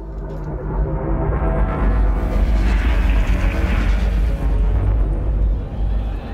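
A helicopter's deep, steady, loud rumble fills the scene, swelling in intensity through the middle as it approaches, with no voices over it.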